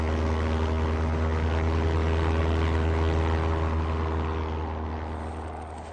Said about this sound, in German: Wir dürfen nichts übersehen. In Richtung Ost nichts zu erkennen. Nebel behindert die Sicht. Wir fliegen so tief wir können.